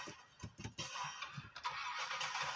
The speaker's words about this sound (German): Boot kommt.